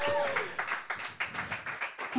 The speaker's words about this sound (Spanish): Vamos a dar un aplauso fuerte al Señor. Come on.